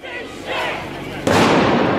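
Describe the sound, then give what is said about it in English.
Steady crowd noise and murmuring voices at a street protest march at the Atlanta Police Foundation in Atlanta, then a sudden loud firework blast about halfway through, followed by a sustained crackling roar that stays loud to the end. “Another, fire, another firework at the Atlanta Police Foundation.”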